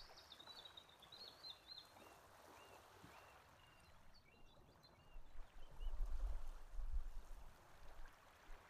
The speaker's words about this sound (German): Höre das Plätschern des Sees.